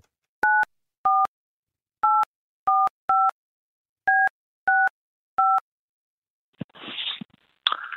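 Eight short, dual-pitched keypad beeps punch out a phone number at an uneven pace as a call is placed to a sports fan, followed by a burst of crackly, noisy line static as the call connects.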